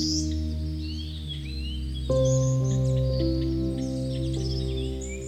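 Light bird chirps flutter in the background throughout at a clear lake by a forest, partly masked by louder sustained musical chords that swell partway through; no one speaks.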